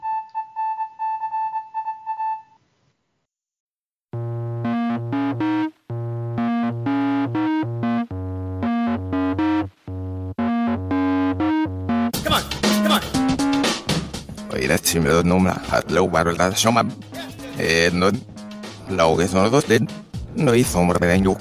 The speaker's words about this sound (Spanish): Esto que estás escuchando es lo mismo que has escuchado antes, pero al revés. Esto es una cuña de promoción de Todo nos da igual, donde vamos a darle una vuelta al mundo del misterio.